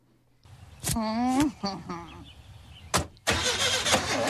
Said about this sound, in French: La voiture qui cale le démarrage